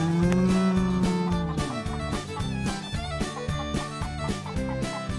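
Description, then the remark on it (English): A single drawn-out cow moo rises at the start over a loud, bouncy rhythmic music track, and the steady beat carries on alone after the moo fades. “Click, Clack, Moo: Cows That Type”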